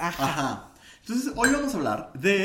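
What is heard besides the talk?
glasses clinking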